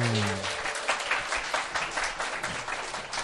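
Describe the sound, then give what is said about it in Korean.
A burst of applause from a small group welcoming a guest onto a talk show, steady dense clapping filling the whole stretch at moderate loudness, with no talking over it. “박수로 모셔보겠습니다.”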